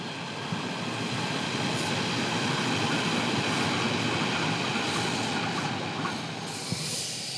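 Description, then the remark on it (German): A Berlin Ringbahn S-Bahn commuter train rolls steadily past on the tracks in Berlin-Wedding, heard from a rooftop terrace overlooking four tracks: a continuous rumble with faint rhythmic clatter and brief metallic squeals, no voices. “Das, was wir gerade gehört haben, das ist die Berliner Ringbahn.”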